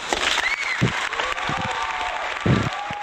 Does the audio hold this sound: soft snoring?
no